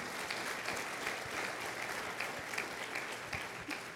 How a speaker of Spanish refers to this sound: Le puede dar un fuerte aplauso, hermano, al Señor.